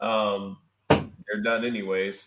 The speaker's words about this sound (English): So something fell. Anyway, that was my chair.